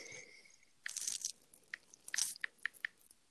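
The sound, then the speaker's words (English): Crisp crunching of food being bitten and chewed, a few bursts of crunch followed by quicker rhythmic chewing clicks, fairly quiet with no talking. “Are you eating something?”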